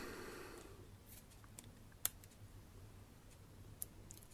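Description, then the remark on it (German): An iPhone keyboard is slid out from under the iPhone with a soft scraping rustle, then switched on: a few sharp, small clicks, one noticeably louder snap, over a low steady hum with no talking. “Ich ziehe die Tastatur also unter dem iPhone vor und schalte die Tastatur ein.”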